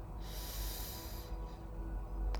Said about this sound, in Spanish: Ahora vamos a volver poco a poco a conectar con nuestra respiración, sintiendo el aire como entra por la nariz y como sale poco a poco por nuestras fosas nasales. Haz otra respiración profunda.